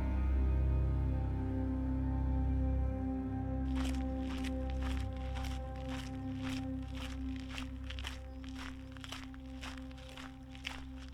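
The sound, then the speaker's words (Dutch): Steady, evenly paced footsteps crunch along an outdoor path in nature during a walk, starting after a few seconds of quiet and continuing at a relaxed walking rhythm over a low, constant background rumble. “Ik spreek met haar af om een wandeling te maken.”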